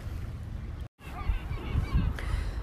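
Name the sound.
birds calling outdoors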